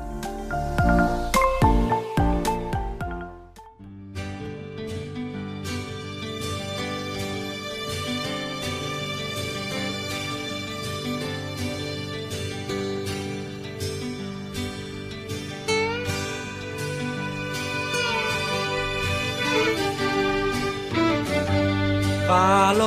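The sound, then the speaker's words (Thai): A song played during a break in a radio programme plays loud and steady: a short, sparse intro gives way after a few seconds to a full band with sustained melodic instruments and a regular percussive beat. No talking. “ค่ะคุณผู้ฟังคะสำหรับช่วงนี้เราพักฟังเพลงจากทางรายการกันก่อนแล้วกลับมาพบกันในช่วงหน้าค่ะ”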